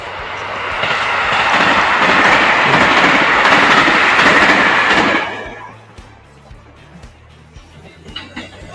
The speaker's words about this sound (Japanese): はい、まだ、はい、電車が通ります。